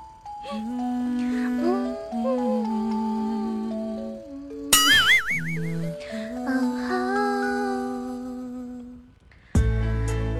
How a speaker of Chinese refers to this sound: 耶，听到这个前奏。